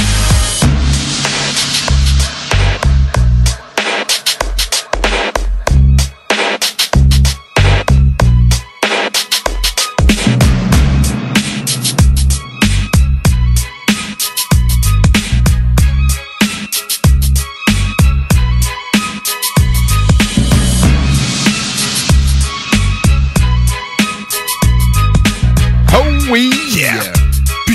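A rap instrumental beat plays loud and steady throughout, with heavy booming bass and punchy, regular drum hits under a dense, bright backing, and no vocals.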